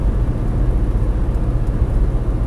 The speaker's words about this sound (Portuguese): Uh, o carro está mesmo a ter uma vibração que eu não estou a gostar nada, mas hey, espero que não seja grave até ir ao, ao mecânico.